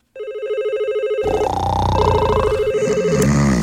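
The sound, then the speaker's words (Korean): A telephone call to a new father rings on and on without being picked up, a bright electronic tone pulsing in a steady rhythm, soon layered with busier, warbling tones that carry on to the end. “전화도 안 받아요?”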